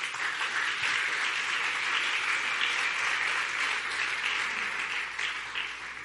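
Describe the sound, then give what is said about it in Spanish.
An audience applauds steadily in praise of Jesus, a dense wash of many hands clapping at even volume for several seconds, with no speech over it, tapering slightly at the end. “Dale un buen aplauso a mi Jesús.”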